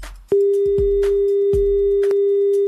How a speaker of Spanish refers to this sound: Ah, cuando escuchamos ese sonido, amigos, significa que se cayó la conexión.